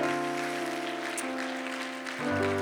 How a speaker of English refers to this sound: Why don't we clap our hands to the Lord and just give him a shout of praise?